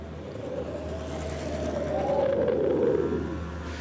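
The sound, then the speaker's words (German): A woman rides a cargo bike past on a street at about 15 km/h, its low whirring tyre noise swelling as it nears and fading away, over a steady background hum of traffic. “15 km/h ist diese Person mit Lastenrad vorbeigefahren.”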